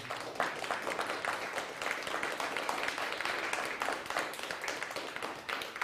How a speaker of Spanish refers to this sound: Un fuerte aplauso a mi esposa y a mi hijo que están ahí.